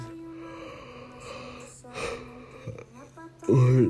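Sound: yawn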